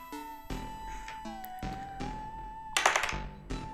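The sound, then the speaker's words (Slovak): An eight-sided die (1D8) rolled on a table to determine hit points: a handful of sharp wooden knocks, then a quick rattling clatter as it tumbles and settles, over a faint steady hum. “Hoďte si 1D8 a 1D8 bude znázorňovať váš počet hitpointov, priatelia.”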